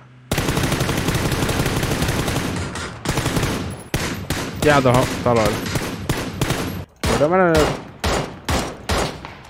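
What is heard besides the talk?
video game gunfire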